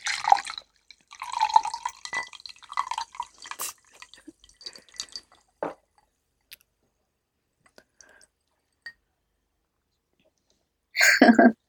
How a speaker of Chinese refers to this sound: 你们听这个气泡，